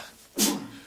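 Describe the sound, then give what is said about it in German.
A single sharp sneeze bursts out, a sudden explosive hiss that fades quickly into quiet room tone. “Gesundheit.”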